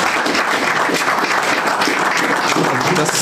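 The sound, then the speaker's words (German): Steady, dense audience applause fills the whole stretch, many hands clapping at once in a loud, even wash of noise with no pauses or speech. “Einen Applaus.”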